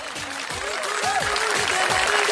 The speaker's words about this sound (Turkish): ayakta alkışlıyorlar falan filan.